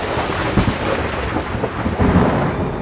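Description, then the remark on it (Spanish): A thunderstorm rumbles steadily, deep thunder rolling under a continuous hiss of heavy rain, loud with no voices present. “el que encontró la solución una tarde de mucho trueno y rayo celestial.”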